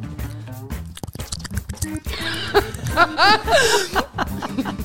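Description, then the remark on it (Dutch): Wet, squelchy mouth noises made by pulling the cheeks back and forth, a person's vocal imitation of a man orally pleasuring a woman, in quick irregular bursts close to the microphone, mixed with chuckling. “Dat als je eh, iemand oraal bevredigt, als een man een vrouw oraal bevredigt, dan klinkt dat zo.”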